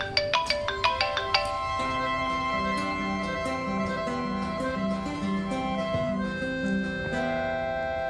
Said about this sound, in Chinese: 哎，你手机，手机响了。啊 啊，不管他， 接啊接吧。 不管他，我们不管他啊。 又响了，你接一下吧，万一有急事儿呢？